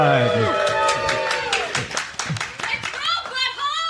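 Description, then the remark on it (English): A live audience in Las Vegas claps and cheers, with scattered sharp handclaps mixed with whoops and shouting voices, lively throughout. “And if you hear bumps, thumps, echoes, and people saying things in the background, it's because we're live with an audience in Las Vegas.”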